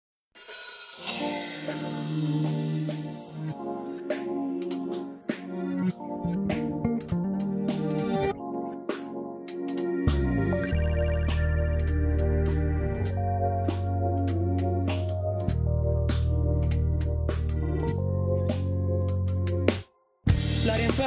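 An instrumental hip-hop intro: sustained melodic chords over crisp percussive hits, with a heavy bass line joining about halfway and a brief dropout just before the end. No voices.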